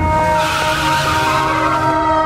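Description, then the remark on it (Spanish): Car tires screech loudly and continuously in the distance, a sustained high-pitched squeal with steady tonal lines, filling the whole moment without any voices. “A ella le preocupa que un poco después de que Saúl se fue, a lo lejos empezó a escucharse el ulular de sirenas y el rechinar de llantas.”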